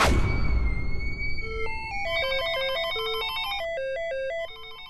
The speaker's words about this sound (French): Là, ça sonne dans tous les sens, au Motorola, le téléphone qui sonne.